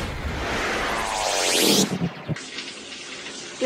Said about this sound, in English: That sound of water that you're hearing in the background, it's not because that this lady is visiting Niagara Falls. No. The water is coming through the roof.